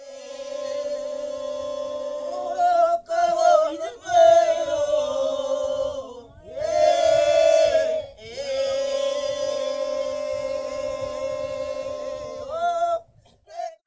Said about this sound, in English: That was, of course, a healing song from the Lardil culture from Mornington Island in Queensland, Australia.